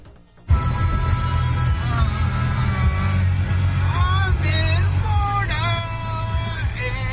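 A song with a sung vocal line starts abruptly and plays steadily and loudly over a constant low rumble, on the radio of a car being driven to a bar.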